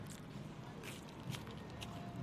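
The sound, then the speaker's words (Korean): Quiet crunching of someone chewing crispy churros coated with a well-known snack brand's topping, with a few distinct crackly bites spaced about half a second apart and no talking. “추러스는 음. 희한하게 음. 파삭한 음. 느낌이면서도 쫄깃한 느낌이야.”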